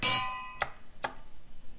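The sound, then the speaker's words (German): A video game anvil is placed and lands with a bright metallic clang that rings briefly, followed by two sharp, crisp clanks about half a second apart, with no talking. “Ähm, du hast noch einen äh, Amboss platziere ich, Amboss platziere ich.”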